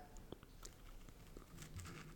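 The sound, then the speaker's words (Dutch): A bite into a homemade pastry filled with pastry cream and red fruit, heard as a few soft, scattered crackles and moist chewing clicks. Quiet and intimate, with no talking. “We gaan een hap nemen. Als je misofonie hebt, succes.”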